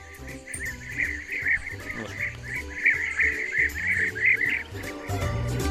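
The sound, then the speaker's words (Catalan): A flock of European bee-eaters keeps up a steady stream of rolling, liquid trilled calls, overlapping, over a low background rumble for the whole stretch. “Però el mal que li fan de veritat als, als apicultors és que les abelles quan senten aquest soroll, tornem-lo a ficar”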